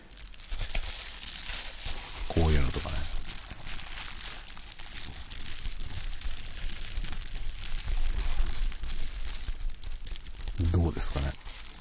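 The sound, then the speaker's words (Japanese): Bubble wrap being squeezed and popped, recorded as a sound-effect test of a newly purchased microphone, a steady crackling crinkle with small sharp snaps running through, plus a couple of brief low voice murmurs. “あとはさっきのこのプチプチ”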